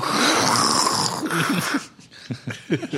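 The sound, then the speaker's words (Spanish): A pug's heavy, snorting breathing, loud: a long raspy wheezing snort, then a series of short, grunty snuffles in quick succession. “Escucha esa respiración por todo el Atlántico”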